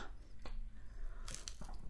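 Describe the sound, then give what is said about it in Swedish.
Wet mouth smacks from someone eating: a few short, irregular clicks and squelches, with a denser cluster in the middle, over a low steady hum and no clear talking. “Ni får ursäkta smasket här i början.”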